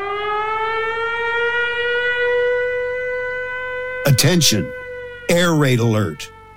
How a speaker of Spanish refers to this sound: nos saltó la alerta varias veces, de hecho hay una app que te avisa de cuando se activa esa alarma antiaérea y de repente a las 4 de la mañana el móvil te suena a tope con esto.